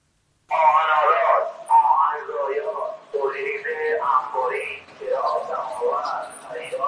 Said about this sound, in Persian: بعد اون مغازه کهنه فروشی و وانت های سمساری راه افتادن که البته الان حسابی به روز شدن و این روزا اینطوری میشنویمشون